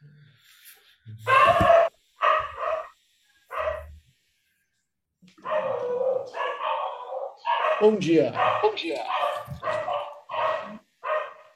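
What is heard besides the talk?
small dog barking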